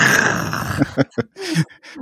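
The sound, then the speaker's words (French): A person imitates a growl: a sustained, raspy throaty rumble followed by several short, gruff grunting bursts, fairly loud and with no other talk. “Je grogne. Je grogne, mais c'est bien, ça arrive.”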